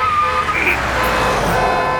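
An old taxi speeds along a road, its engine and tyre noise a loud, steady roar filling the whole stretch, with a brief higher whine rising and falling partway through.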